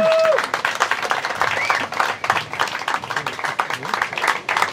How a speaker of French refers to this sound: Voilà pour mes invités. Merci de l'applaudir.